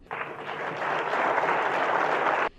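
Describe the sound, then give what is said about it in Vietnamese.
Sustained applause from conference delegates in the auditorium of the National Convention Center, My Dinh, Hanoi, Vietnam, as the conference adopts its declaration; a dense, steady roar of clapping that swells slightly and holds loud for over two seconds before cutting off abruptly, with no talking. “Những tràng vỗ tay không dứt của các đại biểu tại khán phòng Trung tâm Hội nghị Quốc gia Mỹ Đình Hà Nội khi hội nghị thông qua tuyên bố hội nghị về vai trò của giới trẻ trong việc thúc đẩy thực hiện các mục tiêu phát triển bền vững”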